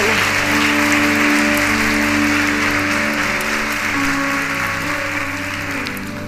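An audience at a church service breaks into loud, sustained applause for the Lord, a dense crackle of many hands clapping, carried over steady held chords from a keyboard or organ throughout.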